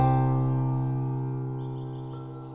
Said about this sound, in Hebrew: מלא ציפורים.